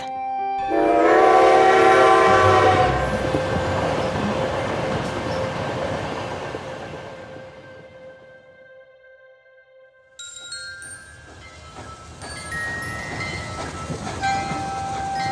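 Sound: train running on rails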